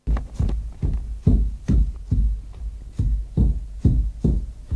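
Wooden flails threshing grain in the early morning, recorded on 10 October 1958, with about ten dull, heavy thuds falling in a steady, even rhythm. Each low blow is followed by a short rustle, and no one speaks.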